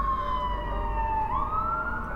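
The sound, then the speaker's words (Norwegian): Sirens of many ambulances wail steadily, pitch sliding down and then jumping back up, loud over a constant low rumble of traffic, heard from a bus driving down toward Sagene and Sankthanshaugen. “Og så kommer det et voldsomt kjør av ambulanser.”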